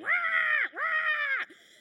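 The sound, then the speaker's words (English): A person imitates a crow with two drawn-out, raspy caws in quick succession, each rising then sagging at the end, loud with no other sounds. “And then they've got the most annoying sound crows, don't they?”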